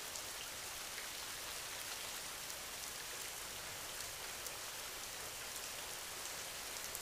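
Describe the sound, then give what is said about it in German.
Steady rain falls continuously, a dense, even hiss of drops with faint scattered pattering, fairly quiet and unchanging throughout, with no voices. “Tiefer und tiefer entspannst du dich, während du den Klang des Regens hörst.”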